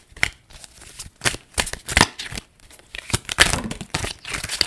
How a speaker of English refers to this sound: So, I'm just shuffling the cards. What is the energy for everyone listening this week?